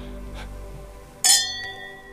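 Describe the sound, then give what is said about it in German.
A single bright clink of wine glasses touching in a toast in a studio, ringing out with a clear, decaying shimmer over a quiet background, fairly loud. “einmal anstoßen. So, einmal noch richtig anstoßen.”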